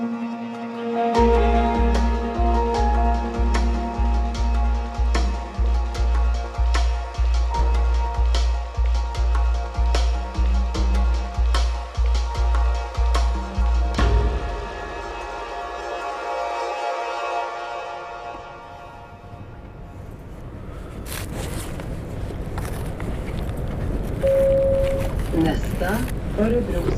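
A train rolls into Örebro central station around eight in the morning in early April 2021, in sunshine. It rumbles along with a steady low drone and regular rhythmic clacks of wheels over rail joints, then the clatter fades as it slows, leaving a softer hiss and rumble.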